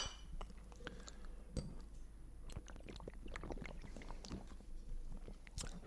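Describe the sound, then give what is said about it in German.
Glasses of malt beer clink together in a toast, followed by a run of small clicks, sips and swallowing sounds as people drink the malt beer, with a few sharper clinks near the start and end. “Und deswegen trinken wir heute nicht Punkt, Punkt, Punkt Malz von der Firma Punkt, Punkt, Punkt aus Punkt, Punkt, Punkt, sondern wir trinken heute die ganze Folge Lukas Malz, sagen vielen, vielen Dank für deine Unterstützung und erstmal Prost.”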